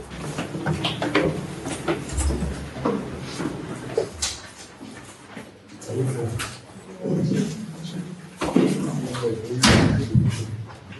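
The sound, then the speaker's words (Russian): An apartment door is worked open during an early-morning police raid by masked officers in camouflage carrying an angle grinder, with a series of loud thuds, clacks and rattles, uneven, while muffled voices and shuffling movement carry on around it. “готовы были пилить дверь, но Ройзман открыл сам”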